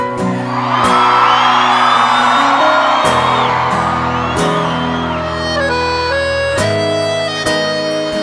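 A large live concert crowd in Petrolina cheers, whoops and shouts loudly over a band playing sustained chords, the roar swelling early and continuing under the music throughout.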